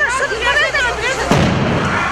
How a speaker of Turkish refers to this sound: İtfaiye ekiplerinin müdahalesi sırasında çatıda zaman zaman patlamalar da oldu.